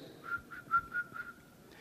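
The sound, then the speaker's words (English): A gaucho at a cattle ranch corral in Argentina whistles softly to the horses in a series of about five short, steady notes at an even pace, gentle, with no talking. “Each gaucho went to the corral and whistled softly like this.”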